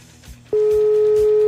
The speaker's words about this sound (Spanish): Te estoy marcando por WhatsApp a ver si nos contesta.